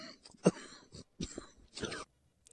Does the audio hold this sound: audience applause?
no